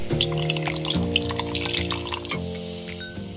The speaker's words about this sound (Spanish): Con trago en mano y sonando copas, comenzamos.